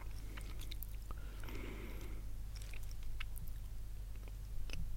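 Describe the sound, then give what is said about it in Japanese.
Crisp, irregular crunching of a Marie biscuit being chewed before bed, with short sharp bites scattered over a steady low hum; no one speaks. “ビスケット食べながら雑談”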